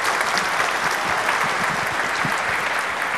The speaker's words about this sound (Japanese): 3人の皆さんに大きな拍手をいただきたいと思いますどうもありがとうございました